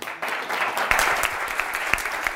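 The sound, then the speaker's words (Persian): A crowd claps steadily, a dense crackle of many overlapping hand claps holding at an even, fairly loud level for a couple of seconds with no voices. “خودتون رو تشویق بکنیم”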